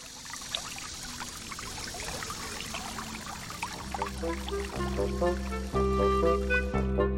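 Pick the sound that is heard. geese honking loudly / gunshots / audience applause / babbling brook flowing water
babbling brook flowing water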